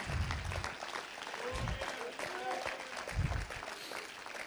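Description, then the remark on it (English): A church audience claps steadily in a dense, sustained round of applause given as a hand clap of prayer, with murmuring voices and scattered calls rising through the clapping. “Why don't you give him a hand clap of prayer?”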